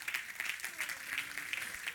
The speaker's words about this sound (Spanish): ¿Le puede dar un aplauso al Señor esta noche?